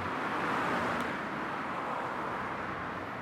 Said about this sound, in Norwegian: Det er veldig trafikkert. Det var ikke så mye trafikk da Einar Gerhardsen var her?